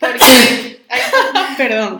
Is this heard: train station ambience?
no